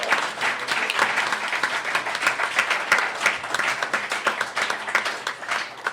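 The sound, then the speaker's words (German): A steady burst of applause from many hands for a participant's quiz score of two and a half out of four points, dense and continuous at a moderate level for several seconds, with no voices standing out above the clapping. “Applaus.”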